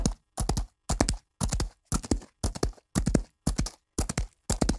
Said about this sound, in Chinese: 文学课程里，达达的马蹄不会只是轻描淡写的带过去，而是能够真实的听到马蹄声，而且不止一种马蹄声。听到诗人笔下快速奔跑的达达马蹄声，